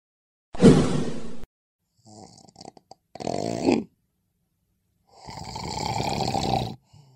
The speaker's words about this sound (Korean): 혹시 이렇게 입을 벌리고 코를 골거나 숨도 멈춰지나요?